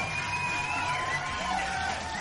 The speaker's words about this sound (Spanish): Pinche aplauso.